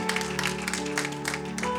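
An audience claps steadily for a couple of seconds, giving applause to those present, a dense crackle of many hands at an even loudness, with a low sustained hum running beneath it.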